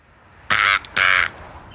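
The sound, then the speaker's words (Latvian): A European roller gives two loud, harsh, rasping calls in quick succession, clear, with a brief pause between them and quiet background otherwise. “Te zaļā vārna!”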